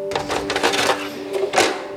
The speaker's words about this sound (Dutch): Een snorrende projector schotelt de pakweg 30 aanwezige oude beelden voor.